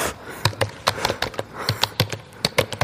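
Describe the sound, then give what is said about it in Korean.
Crisp clacking of keys on a computer keyboard, typed as an ASMR sound, a quick irregular run of sharp taps with brief pauses, heard on its own with no talking. “키보드를 치고 있습니다.”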